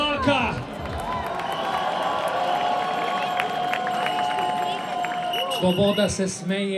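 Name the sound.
audience applause and cheering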